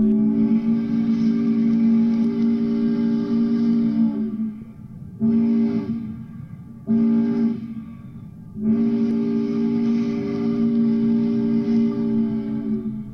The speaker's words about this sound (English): One long blast, too short, and another long blast means that the boat was approaching a landing. It was also called a begging whistle because it alerted onshore workers that they were needed to unload.